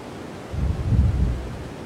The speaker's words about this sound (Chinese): 听着海浪的声音。